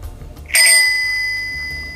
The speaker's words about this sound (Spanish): Un timbre de bici y acto seguido un ciclista que iba caminando tranquilamente, iba pedaleando y disfrutando